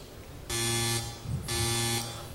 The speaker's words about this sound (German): Oh, oh, das ist der Wäschetrockner. Und Sie sagen mir jetzt, was das zu bedeuten hat? Richtig, die Wäsche ist fertig.